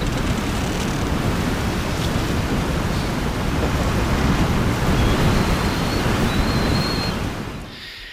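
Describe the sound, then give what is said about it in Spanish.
A continuous, loud roar of gale-force wind (force 9 strong gale, 75 to 88 km/h) rushing through forest trees, dense and unbroken like surging surf, holding steady for several seconds before easing slightly at the end. No voices. “Y el temporal ya es un muro de viento y el mar suena casi, perdón, el bosque suena como un mar embravecido.”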